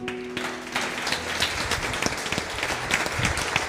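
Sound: audience applause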